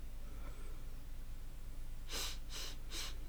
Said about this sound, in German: Schnief.